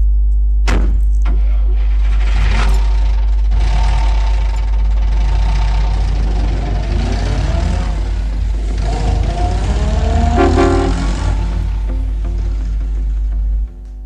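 A car engine idles and then revs as the car pulls away, the rumble steady and loud, with a brief horn honk sounding near the end before the noise cuts off.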